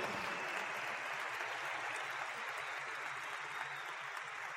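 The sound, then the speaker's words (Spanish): A crowd applauds steadily, a dense, continuous wash of clapping that stays at an even level throughout, with no voices standing out above it. “Y hace que darle un fuerte aplauso a eso.”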